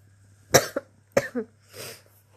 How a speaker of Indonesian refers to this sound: Malam ini aku batuk-batuk tanpa henti. Suaraku serak parau.